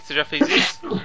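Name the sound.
sneeze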